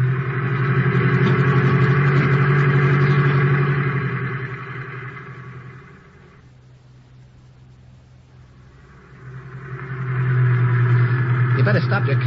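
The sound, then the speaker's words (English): A car engine hums steadily and loudly as the vehicle drives, its drone easing down and fading for a few seconds before swelling back to full strength. “Now quit making with the jokes and start making with that gas pedal.”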